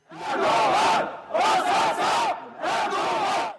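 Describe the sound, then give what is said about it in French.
Kurdish protesters in the rue d'Enghien area of Paris chant in unison the name of the man they hold responsible, during afternoon clashes with police; three loud, rhythmic bursts of shouting voices separated by short pauses, rising and falling together like a repeated slogan. “Les manifestants ont commencé à scander le nom de celui qu'ils considèrent comme le commanditaire, puis la tension est montée très vite.”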